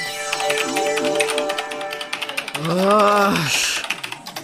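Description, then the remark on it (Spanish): Rapid, steady clicking of keys on a computer keyboard, running the whole time, with a brief rising-and-falling vocal sound in the middle layered over the typing. “Pícale al teclado.”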